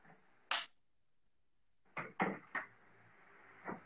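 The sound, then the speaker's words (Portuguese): A door being closed: a sharp wooden thud, a short silence, then a quick run of knocks and latch rattles, ending with one softer bump. No one speaks. “Fechei a porta ali também.”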